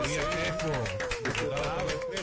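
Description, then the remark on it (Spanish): A burst of steady applause welcoming the next guest, a deputy representing the Fuerza del Pueblo, on the program No se diga más on Top Latina, a dense crackle of many hands clapping at once, with a voice talking over it throughout. “Bien amigos, de vuelta en No se diga más a través de Top Latina y le damos la bienvenida a nuestro próximo invitado con aplausos también.”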